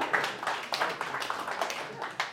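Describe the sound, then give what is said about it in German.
A crowd applauds a visitor from Germany with steady, dense clapping that holds throughout at moderate loudness, a few sharper claps standing out from the wash of hands. “Ist das, komm, das ist ein Applaus.”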